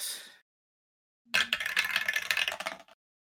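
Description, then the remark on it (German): A brief clatter, then after a pause a longer rattling tumble of dice rolling for about a second and a half, fairly loud, with no voices. The dice are rolled for a wild magic check in a tabletop role-playing game and land on twelve. “Du musst aber Wild Magic würfeln.”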